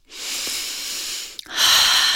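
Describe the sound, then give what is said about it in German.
Two long, deep breaths during an Energy Medicine Yoga exercise: a steady airy inhale through the nose, a brief pause, then a louder, rushing exhale through the mouth, with no talking. “Vergiss nicht zu atmen, tief ein und tief aus.”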